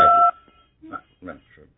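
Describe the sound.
A single loud telephone keypad tone, set off by a phone pressed against a caller's face, sounds at the start, a steady electronic beep lasting a fraction of a second, then gives way to quieter speech.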